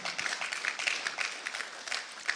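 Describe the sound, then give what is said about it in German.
An audience applauds steadily, a dense patter of many hands clapping at a moderate, even volume with no voices over it. “Das, da hat schon jemand einen Applaus geben.”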